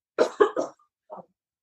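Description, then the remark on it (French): Three quick, harsh throat-clearing bursts, followed after a short pause by one softer rasp. No talking. “me racle la gorge.”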